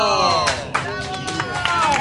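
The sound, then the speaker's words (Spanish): An audience applauds a nephew with scattered, irregular claps, while raised voices ring out over the clapping, sounding like cheering from the crowd. “Bueno, bueno, bueno, chicos, les pido un aplauso para mi sobrino,”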